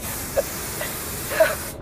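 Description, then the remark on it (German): A steady hiss of spray from a small nozzle, used in space as propulsion like a mini jetpack, runs for nearly two seconds, with a few faint squeaks along the way, then cuts off abruptly. “Der Sprühstoß ist der Antrieb, verstehst du? Das ist wie eine kleine Düse”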